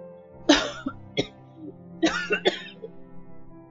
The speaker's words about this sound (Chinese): 乐乐看着爷爷咳嗽，连忙上前安抚，并轻轻的拍打老人的背。